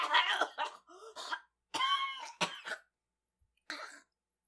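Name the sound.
coughing fit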